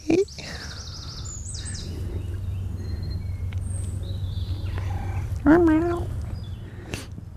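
A cat met outdoors during a walk meows twice, a short call right at the start and a louder, wavering one later, while birds twitter faintly in the background over a steady low hum.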